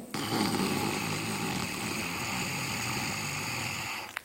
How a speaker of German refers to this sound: Und die Nächste Atemübung ist Brahmari, die Biene. Atme sehr tief vollständig aus. Atme schnarchend ein.